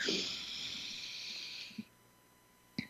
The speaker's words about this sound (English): And to help us really connect in and get the most out of our time together today, let's take a deep breath in through the nose,